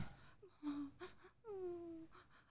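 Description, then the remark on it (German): A princess weeps and whimpers, lamenting her fate, in faint, distant sobs, her voice rising and falling in short wavering cries with a longer drawn-out moan near the end. “Ich höre die Prinzessin weinen. Sie klagt über ihr Schicksal.”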